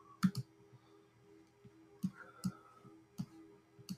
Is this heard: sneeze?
no